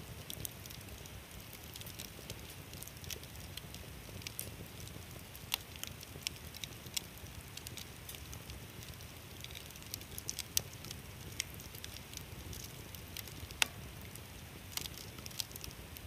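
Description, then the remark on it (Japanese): A campfire crackles beside the clear Choshi River, with sharp, irregular pops and snaps over a steady rushing wash of river water, no voices, the pops brief and bright against the constant flow. “ャンプファイヤーの炎が清流銚子川に反射してキラキラと輝いています”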